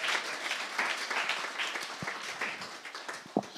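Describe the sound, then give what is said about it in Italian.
An audience applauds steadily for "the brother", a dense wash of many hands clapping at an even level, with a couple of sharper individual claps standing out near the end. “Facciamo un applauso al fratello.”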